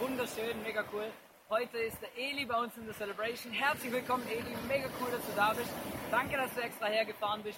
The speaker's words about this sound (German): Hello ICF, direkt vom ICF Beach Camp. Ihr hört auch das Meer im Hintergrund rauschen. Es ist relativ laut hier, aber sehr geil.